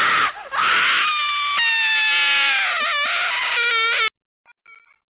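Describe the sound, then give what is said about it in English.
A screaming and crying sound effect: loud, shrill screaming and crying that wails almost continuously for about four seconds with a wavering pitch, then cuts off abruptly, leaving a couple of faint, brief whimpers. “She starts screaming.”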